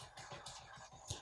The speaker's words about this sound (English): He is trying to claw his way through my bedroom door to get out here and make an appearance on the show.